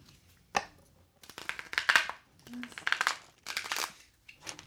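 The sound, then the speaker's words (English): A Rider Waite tarot deck is shuffled, several crisp papery riffling bursts in an uneven rhythm with short pauses between, fairly quiet and with no talking. “And then I'm going to shuffle them a couple times.”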